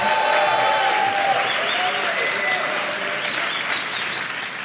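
Steady applause from an audience fills the whole stretch, a dense, continuous patter of many hands clapping at once, fairly loud and close, with faint vocal tones drifting through.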